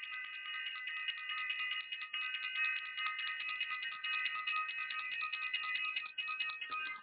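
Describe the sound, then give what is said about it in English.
A bell rings continuously for about seven seconds, a bright, steady cluster of high metallic tones holding at an even loudness, with no voices. “I want to ring the bell for self-invested and for everyone who is self-invested.”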